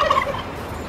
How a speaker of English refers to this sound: Turkey sound effect. I still have it right here.